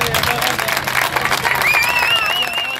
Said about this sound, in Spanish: Hay un papel que es fundamental en los mítines. Es la persona que siempre rompe el primer aplauso.